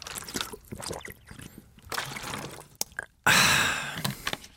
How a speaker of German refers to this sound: Ein ordentlicher Schluck Wasser, den sollten Sie auch bei dieser Hitze nicht vergessen, vor allem wenn Sie Sport machen.